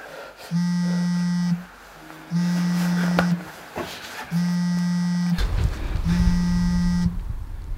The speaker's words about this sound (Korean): 탁자를 흔드는 진동 소리에 정신이 번쩍 들었어요.